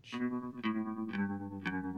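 A rock song's intro from the film The Lost Boys, a cover by a British band: sustained, chorus-drenched guitar-like chords struck about twice a second, full, with no vocals yet.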